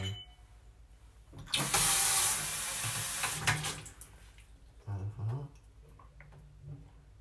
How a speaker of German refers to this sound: Ich muss kurz einen Schluck Wasser trinken.